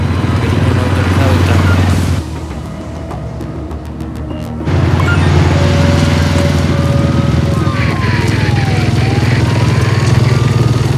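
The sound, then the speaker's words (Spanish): A motorcycle, started by the character Tokio, idles and rumbles steadily as it moves slowly among police officers, cars and vans; a loud, continuous drone with a brief dip partway through, set against background noise and occasional muffled voices. “Tokio se baja la visera del casco y arranca la moto.”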